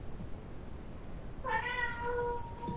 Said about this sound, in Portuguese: Nossa, esse gato aí, cara. Ninguém é deu atrás, cara. Tô com pena dele.